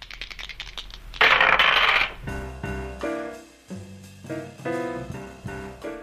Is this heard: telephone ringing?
no